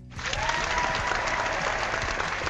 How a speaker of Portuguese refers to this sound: Uma salva de palmas, mas não é para ela, é para o Enio, que conseguiu falar o nome dela.